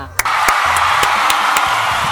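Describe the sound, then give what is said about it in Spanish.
An audience breaks into sustained applause, a dense, steady wash of many hands clapping that starts abruptly after a brief pause and keeps going at an even, loud level. “¡Bravo esos aplausos!”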